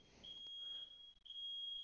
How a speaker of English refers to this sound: Is my fire alarm? Can you hear that? I can, yeah.